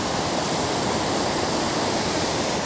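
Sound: roaring waterfall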